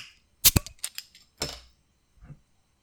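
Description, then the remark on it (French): A sharp metallic pop and a few quick clicks as a large beer bottle is opened, followed by a short hissing burst and a faint soft knock. “Ça mousse pas.”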